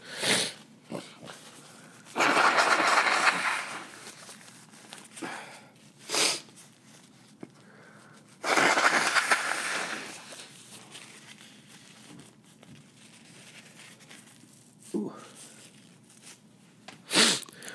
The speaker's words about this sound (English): Excuse me, I gotta blow my nose. Hold on.